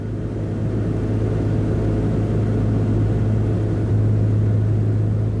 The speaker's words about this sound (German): Die zweimotorige Twin Otter aus den 50er Jahren hebt sanft ab